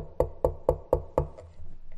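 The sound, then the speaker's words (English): Five firm, evenly spaced knocks on a door, fairly loud, with a steady rhythm, followed by a low background rumble. “Then maybe the next day, you get a knock on your door.”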